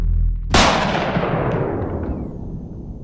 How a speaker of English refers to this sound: The shot leaves your gun, Jolene and things almost go into bullet time.